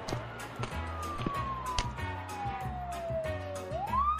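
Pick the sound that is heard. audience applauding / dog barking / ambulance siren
ambulance siren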